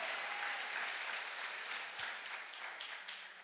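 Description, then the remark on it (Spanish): A crowd applauds steadily, a dense, continuous wash of many hands clapping at an even loudness, tapering slightly toward the end. “Cuéntale un aplauso fuerte a papá.”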